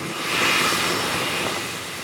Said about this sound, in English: farther west at the tiny aspen airport a line of private jets queues along the runway looking at 1, 2, 3, 4, 5, 6, 7, 8, 9, 10, 11 private jets just right here. And these are big planes. These look like they could be commercial airline jets.